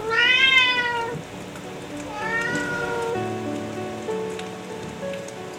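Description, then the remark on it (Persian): A cat at a window, looking outside, meows twice, close by, with drawn-out rising-and-falling calls, while steady rain patters on a surface underneath. “گربهش اومد لب پنجره اونم داشت بیرون رو نگاه میکرد”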